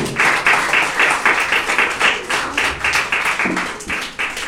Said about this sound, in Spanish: Dale la ofrenda de palmas al Señor, pues con todo su corazón.